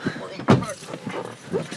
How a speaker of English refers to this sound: Doors shut.